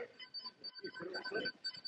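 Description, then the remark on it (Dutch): A faint electronic scooter alarm warbles and beeps repeatedly in the background, its high tones cycling steadily beneath a person talking. “Nou, je hoort op de achtergrond eh, gaat meer. Een alarmpje van een eh, scooter.”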